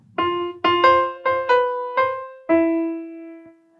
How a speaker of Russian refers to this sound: Короче, первая интонация и у гитары, и у скрипки выходит из одной ноты, вот это из этой. Только у гитары это звучит так